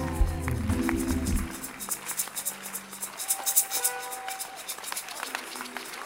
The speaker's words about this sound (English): It's a good place not to sit down, but standing up and giving him a clap offering.